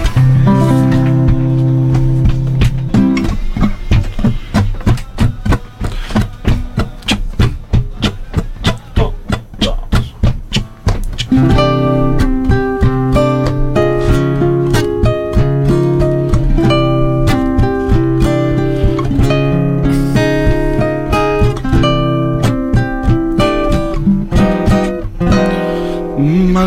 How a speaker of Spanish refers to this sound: Bueno, ya que nos he presentado un poquito a cada uno, por ahí estaría bueno escucharlos hacer una canción y seguimos charlando. ¿Cuál quieren hacer?